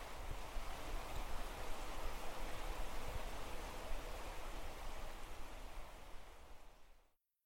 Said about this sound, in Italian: un bel modo per salutarci è lasciarvi con qualche secondo di, di un rumore molto, molto caratteristico che è il rumore dei nostri boschi.